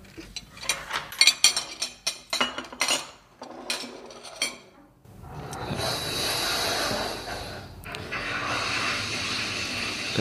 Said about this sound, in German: Übernimmst du das Abräumen, bitte? Ja, klar geh schon.